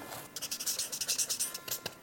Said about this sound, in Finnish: niin nyt sä saat äh, tuota, niin kunnian kirjoittaa, kirjoittaa terveiset, terveiset sinne.